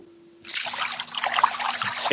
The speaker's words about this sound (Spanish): ASMR agua de piscina.